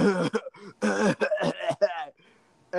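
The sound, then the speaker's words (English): A voice imitates a woman at a gym in a fit of excessive coughing: several harsh, rapid coughs and throat-clearing bursts in quick succession, fairly loud, ending briefly before another starts. “So we were at the gym one day, and there was this woman there and all of a sudden she just starts coughing up a lung, like oh, wow. just excessive.”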